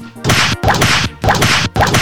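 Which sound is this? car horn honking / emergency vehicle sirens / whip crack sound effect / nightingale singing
whip crack sound effect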